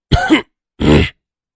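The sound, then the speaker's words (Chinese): A pointed cough, heard as two short, rough bursts in quick succession that sound much like a throat being cleared, fairly loud and on its own with no talking. “可是他还是抬头瞪了顾玉英一眼，并且发出一声咳嗽。”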